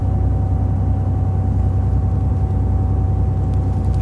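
A single locomotive diesel engine idles to provide heating while the locomotive's other engines are shut off, with a steady, deep rumbling drone and a faint constant whine, unchanging throughout, with no talking.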